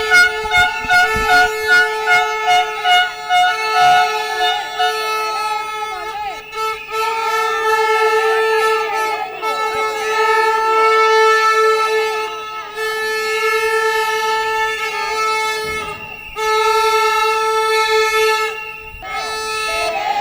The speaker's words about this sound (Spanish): Los vendedores ambulantes exhibieron pancartas reivindicativas de su decisión de trasladarse de nuevo al centro de la ciudad para realizar el mercadillo semanal, así como con fuerte ruido de sirenas y silbatos.